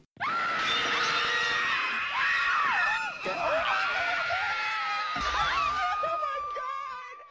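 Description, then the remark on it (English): A woman lets out a long, loud, sustained scream, her shrill voice wavering and breaking in pitch across several seconds before trailing off. “You are now officially a Scream Queen.”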